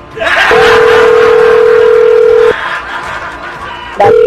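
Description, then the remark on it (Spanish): A steady telephone dialing tone hums for about two seconds as a call is being placed, then cuts off, and another short tone burst starts near the end, with soft chatter and laughter underneath. “Ahí está marcando.”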